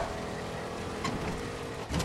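A video game car engine drones steadily throughout, a continuous humming rumble with a brief surge near the end, fairly loud, with no voices over it.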